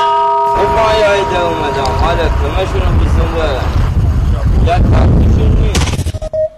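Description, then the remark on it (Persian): A motorboat engine roars loudly and steadily with a deep rumble as the boat heads out to sea for fishing, overlaid by churning, splashing noise and a few tonal whines before the sound breaks up and fades near the end. “چشماتون رو ببندید و تصور کنید که برای سید ماهی سوار بر یک قایق موتوری راهی دریا شدید”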